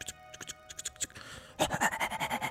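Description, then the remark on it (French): A person imitates a dog's rapid panting, a quick run of breathy huffs that grows louder and steadier in the second half, with some faint scratchy rustling before it. “vous voyez encore … qui, fait son chien”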